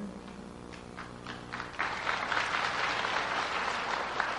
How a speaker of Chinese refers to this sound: 嗯，这鼓掌都很勉强，背都卡大声啊，唔得卖怕。 这录音起来太小声了，没有震撼感，是吧？